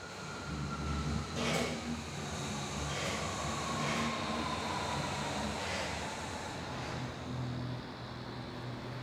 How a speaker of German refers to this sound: Kannst du eigentlich die Bahn hören? Nee. Aber quasi den, den Wind, ne? Ja. Für mich ist es kaum vorstellbar, wirklich nichts vom Anfahren der Bahn zu hören.